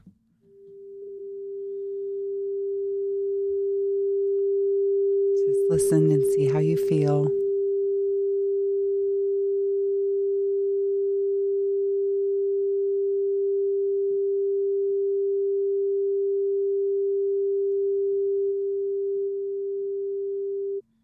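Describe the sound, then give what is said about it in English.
A steady, pure 396 hertz sine tone hums continuously for about twenty seconds at an even level, with a person speaking briefly over it early on. “Okay, that was 20 seconds. Okay. So of the 396 hertz.”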